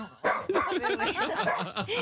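A guard dog barks loudly, reacting to a sensed enemy, a quick run of sharp, yelping barks that follow one another with barely a pause.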